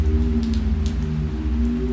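Rain drums steadily and repeatedly on a sheet-metal roof, a dense continuous patter with occasional sharper drop hits standing out, fairly loud, with no voices.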